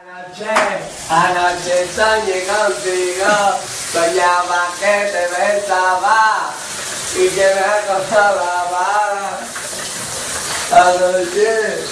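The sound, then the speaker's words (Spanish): A voice sings loudly and off-key through a steady hiss of running shower water, the wavering melody carrying on almost without pause across the whole stretch. “Cuidado si te se resiente el oído al escuchar el siguiente documento, porque no creo que haya nadie que desafine peor.”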